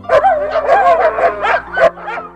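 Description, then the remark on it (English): A dog barks and yips in a quick, excited run of about eight sharp bursts, loud and close, with a whiny edge to some of the calls and no talking. “But before George could even reach the puppy, the mother dog pushed the door open and was off like a shot.”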